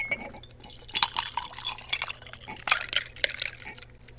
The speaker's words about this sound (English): Go ahead and pour it into the glass.